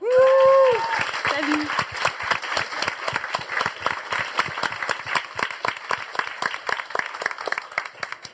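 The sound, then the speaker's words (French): Loud, dense applause from an audience, steady rapid clapping with a few whoops or cheers at the very start, continuing without a break for several seconds, welcoming a new team member on a broadcast show. “On applaudit très fort”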